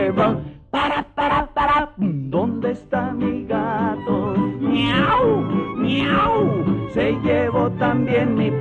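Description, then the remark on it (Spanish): A human voice imitates a cat, making a series of loud, drawn-out meows with rising and falling pitch. Short bursts come first, then longer wavering cries. “Miau, miau. Se llevó también mi pantalón. Gatito, gato, mi tacuche, gato.”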